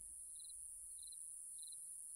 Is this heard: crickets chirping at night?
yes